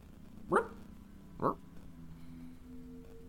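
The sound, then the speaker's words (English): A puppy gives two short, sharp barks about a second apart, followed by a faint, thin whimpering whine trailing off in the quiet background. “So I'm gonna look at our newfound uh, uh, puppy and and point at the footprints and then point down that hall and see if he picks up on it.”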